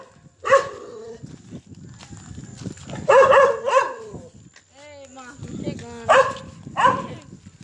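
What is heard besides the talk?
dog barking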